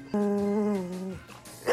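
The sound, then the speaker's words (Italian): A dog lets out one long, drawn-out bark, loud, steady in pitch for about a second, followed by a brief scuffling noise. “Me lo hanno mandato un paio di giorni fa il cane della notaia.”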